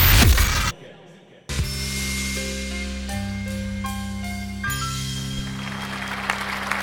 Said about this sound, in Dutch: nog hartelijk applaus voor uh, …